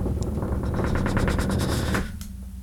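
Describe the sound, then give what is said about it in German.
A loud snare-style drum roll played before announcing a contest winner: rapid, evenly spaced hits that quicken into a dense rattle for about two seconds before cutting off and fading. No one speaks. “warte ich mal einen Trommelwirbel, ich weiß nicht, ob man es hört.”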